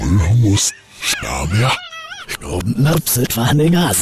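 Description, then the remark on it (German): A voice speaking in reverse, its syllables swelling and cutting off abruptly with a garbled, unnatural rhythm, loud, with a brief high whining stretch in the middle. “Das war unser sagenhaftes Brandenburg Heimat zum Hören auf rückwärts”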